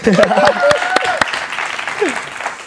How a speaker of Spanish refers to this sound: Vamos a darle, vamos a darle. Un aplauso a eso.